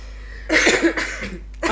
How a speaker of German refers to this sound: aber, aber ich habe auch das Gefühl, der heiße Tee triggert so richtig, dass ich mehr husten muss.